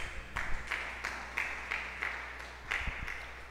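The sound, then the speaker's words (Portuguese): An audience applauds the word of God after a Bible reading, in steady, rhythmic unison claps, about three per second, moderately loud over a constant low hum, with no voices. “Dê um beijo na palavra de Deus e aplauda a palavra, meu irmão.”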